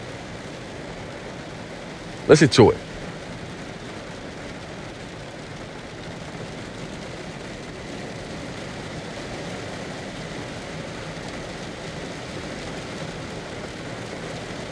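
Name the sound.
rain falling outside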